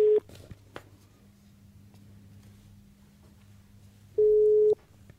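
A telephone ringback tone while placing a call: a loud, steady electronic beep heard briefly at the start, then again after about four seconds of quiet line hum, with no one speaking.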